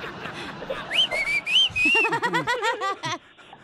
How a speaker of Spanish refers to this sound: a ver, a ver, chiflale, comadre, chiflale ahorita. Imagínate que va pasando enfrente de ti.